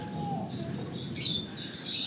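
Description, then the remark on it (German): Budgerigars, small parrots and pigeons kept in an aviary chirp and twitter in a busy cluster, bright overlapping calls over a steady low background rumble, with a slightly louder burst of chatter midway. “Hier werden Vögel gehalten, kleine Wellensittiche, Voliere und kleine Papageien”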